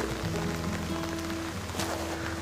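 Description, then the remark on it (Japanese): Steady heavy rain pattering on a hard surface, a dense continuous hiss of drops with a few faint low tones humming underneath and no voices. “結構ね雨がひどくて”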